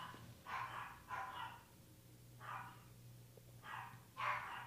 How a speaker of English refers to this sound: I'm just going to wait till the dog yeah, stops.